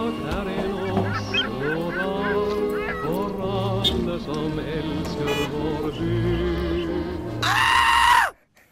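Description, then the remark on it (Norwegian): A short, busy jingle for the radio segment Oslo onsdag, made of bright, honking tones, ends in a loud, shrill scream lasting about a second before cutting off abruptly. “Og det og, skriket der det er kanskje det vi på en måte skal prøve å unngå, på en måte?”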